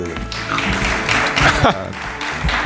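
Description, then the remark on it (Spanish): Moderate applause from an audience in the assembly hall of the town hall in Igueruela, during a live Onda Cero radio broadcast, a steady patter of clapping lasting a few seconds, with some voices mixed in underneath. “cada vez se le aplaude menos, es natural, pues porque ya el público está un poco cansado.”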